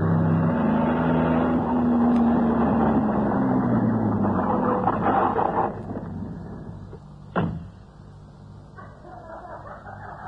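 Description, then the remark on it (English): A car engine rumbles steadily with a low hum as it drives up to a house, then eases off and quiets as the vehicle comes to a stop. A single sharp thump follows, then a softer murmur. “Spotlighted in the glare from the car, they embraced and kissed, and the girl fumbled in her purse for a key.”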